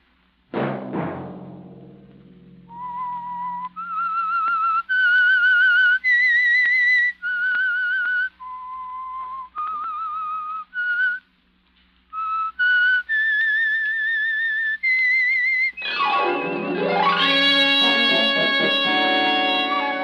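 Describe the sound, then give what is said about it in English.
The signature whistled theme of the radio program The Whistler: a lone whistled melody of held, slightly wavering notes that step up and down in pitch, with no voices, ending as a loud, full orchestral swell. “Next Monday at 9 o'clock, the Whistler will bring you another strange tale.”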